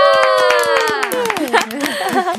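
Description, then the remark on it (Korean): A group claps in a quick, steady run of sharp hand claps to celebrate a new album reaching the upper ranks of the charts in 10 countries, including Turkey, Mexico, Hong Kong and Vietnam, while several voices let out a long, bright, sliding cheer over the top. “다 같이 박수!”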